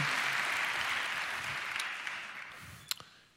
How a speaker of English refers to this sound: Good morning, everyone. Can we start by giving God a great round of applause today? Worthy of all our praise, all our adoration.